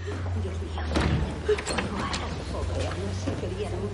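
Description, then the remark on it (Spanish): A door is pulled shut with a brief muffled knock and latch as someone leaves the porter's lodge, set against a steady low hum and some faint indistinct voices. “Sale de la portería y cierra la puerta.”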